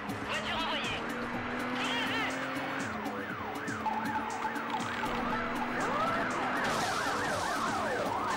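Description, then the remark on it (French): Several emergency sirens in a video game wail at once, their rising and falling tones overlapping continuously and loudly throughout, with a steady engine-like drone underneath. “Attendez, je vous baisse le son un peu parce que vraiment les les sirènes ça rend ouf.”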